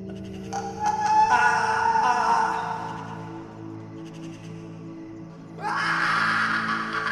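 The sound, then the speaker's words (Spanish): Eerie, drawn-out moaning wails rising in two swells over a steady low droning hum, with no talking, heard by crop fields behind a station. “Después de estar ahí por unos minutos, empecé a escuchar unos extraños quejidos.”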